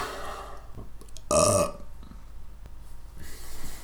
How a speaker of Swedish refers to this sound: Jag rapade nyss rakt in i micken.